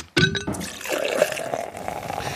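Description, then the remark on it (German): Beer is poured into a glass: a short ringing clink, then a steady, fizzy gush whose pitch rises slightly as the glass fills. No voices. “Das ist jetzt das Einschenken von einem Bier.”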